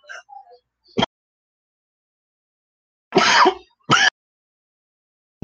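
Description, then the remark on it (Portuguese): Loud coughing: a short sharp cough, a pause, then a harsher rasping cough quickly followed by another, with near silence between the bursts and no talking. “Corta que deu uma tossida aqui.”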